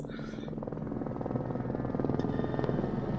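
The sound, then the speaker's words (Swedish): A helicopter passes close overhead, hidden in low clouds above a parking lot in the city of Calabasas, its rotor beating out a fast, steady thumping over a heavy engine rumble that grows slightly louder through the moment. “Han hör hur en helikopter flyger nära.”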